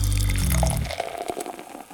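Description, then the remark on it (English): Beer pours steadily into a glass, a rich gurgling splash that thins out into lighter fizzing and trickling as the pour ends, fairly loud, with no voices. “So grab yourself a glass, pour yourself a beer, and get ready to hop forward in the brewing and beer business.”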